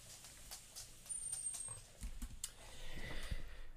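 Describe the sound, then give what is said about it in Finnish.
Dogs push doors open: a series of soft knocks, creaks and scrabbling paw clatter, with a heavier thump and shuffle toward the end. No one speaks. “Se on noi koirat, kun aina avaa noita ovia.”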